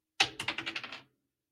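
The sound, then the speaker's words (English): Dice clatter across a hard surface in a quick run of about seven sharp clicks, bouncing closer together and fading over under a second, with nothing else audible. “The dice are doubling down!”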